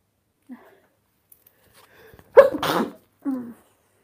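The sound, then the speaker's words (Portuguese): A single loud sneeze bursts out with a sharp intake and explosive release, followed shortly by a brief voiced sound, with faint murmurs before it. “Shalom, você pega pego meu espirro aqui, eu tô falando, é complicado.”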